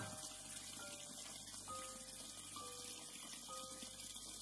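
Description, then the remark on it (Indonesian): Water runs steadily from a bathtub tap in a bathroom, a continuous, fairly quiet hiss that never breaks, with faint thin tones drifting through it and no voices. “Sampai akhirnya saat aku lagi cuci muka sambil merem di wastafel, keran air di bak mandi nyala.”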